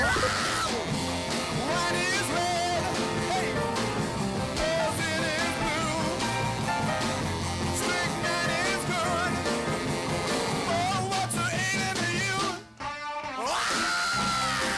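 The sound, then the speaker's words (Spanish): Raw, distorted 1960s lo-fi garage rock with shouted vocals, crashing drums and fuzzy guitars, loud and dense throughout, with a brief abrupt break near the end before the band crashes back in. “una banda que marcó el pulso de los años 60 con un sonido low-fi, innovador y bien, bien garage.”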